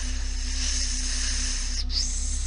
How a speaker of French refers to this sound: Plus tard, dans la soirée, J'étais assis euh, à la table dans le salon, sur une chaise, je vérifiais mes courriels quand j'ai entendu un petit sifflement dans le couloir.